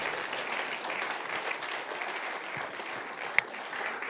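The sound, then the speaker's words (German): An audience applauds steadily, a dense wash of many hands clapping at an even level throughout, with one sharp louder clap standing out near the end. “Willkommen, nochmal einen Applaus.”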